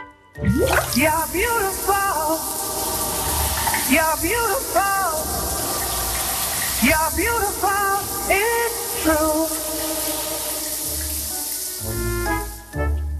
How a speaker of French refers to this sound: Écoutez bien, il est sous sa douche et dans un instant, vous allez me donner son nom.